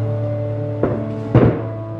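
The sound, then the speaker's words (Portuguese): Two dull wooden thumps about half a second apart, like a chair being set down on a hard floor, over a steady low electrical hum. “Pega uma cadeira para mim, Marisa, aqui.”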